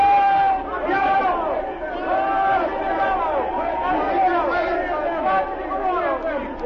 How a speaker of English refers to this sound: Three of these patriotic citizens are here on this platform now, I ask them to stand and receive your applause.